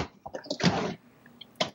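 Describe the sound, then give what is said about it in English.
A drawer is tugged open with effort: a few short knocks and rattles, then a loud, broad scraping slide, followed by a quiet pause and a sharp final clunk. “two drawers that this doesn't even want to open up.”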